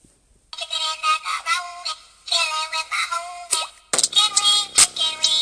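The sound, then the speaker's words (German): A chicken dance emote sound effect from the video game Rocket League: a bright, tinny electronic jingle repeating a short bouncy melodic phrase about three times, fairly loud, with no talking over it. “Oh, der Chicken Ring Dance ist das, wenn ihr es nicht hört.”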